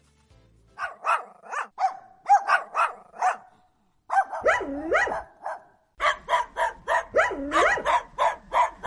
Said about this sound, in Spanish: perrito?